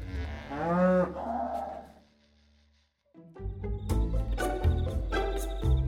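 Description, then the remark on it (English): A cow lets out a long, deep, drawn-out moo with no voices present; after a short silence, a busier stretch of loud, choppy animal noises follows. “That night, he dreamed of being a farmer, feeding cows, horses, and pigs.”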